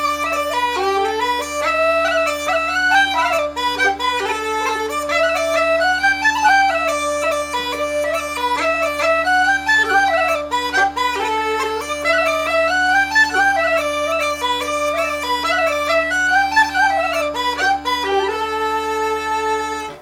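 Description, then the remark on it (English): A lively bagpipe tune with a steady, continuous drone beneath a bright, ornamented melody that runs without pause for the whole stretch at a fairly loud, even level. “the weekly show where I explore the likely repertoire of 18th and early 19th century bagpipers using historic music collections, written for bagpipes or not, uh, and played on Uilleann pipes, Highland pipes, and whistles. Let's hear some tunes.”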